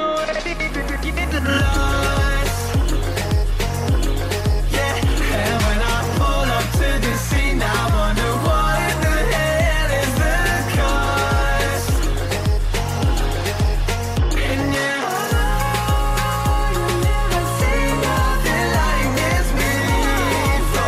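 The copyright-free music track by a band plays throughout, full and loud, with a steady driving beat, deep pulsing bass and layered melodic synths, briefly dropping its bass for a moment before surging back in. No one speaks.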